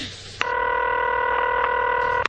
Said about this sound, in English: you actually have to dial in some extra numbers here. Uh, this is my pin code.